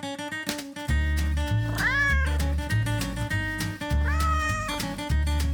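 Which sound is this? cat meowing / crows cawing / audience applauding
cat meowing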